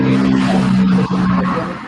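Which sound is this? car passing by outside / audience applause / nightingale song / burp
car passing by outside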